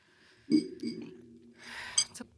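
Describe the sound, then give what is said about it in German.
Glasses clink together in a quick toast, a bright ringing tap followed by a softer second touch, after a low murmur and some breathy rustling. “Prost.”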